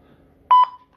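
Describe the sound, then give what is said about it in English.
Two quick electronic phone beeps in close succession, loud, with a steady tone trailing briefly after them against a quiet background, signaling an incoming call beeping through on a phone. “So, um, sorry, someone's beeping through. I'm just gonna turn this off.”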